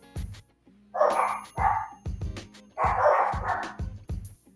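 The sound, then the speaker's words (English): Dogs bark repeatedly in quick bursts, several sharp, fairly loud woofs, overlapping in an uneven rhythm with no talking. “The dogs agree on that.”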